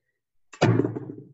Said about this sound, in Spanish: Pesa cada una medio kilo, por lo tanto llevamos un kilo de ah. más. De hecho, esperad, a ver si que se escucha, ¿eh? La dejo, ¿eh? Caer en la mesa, quizá retumba esto.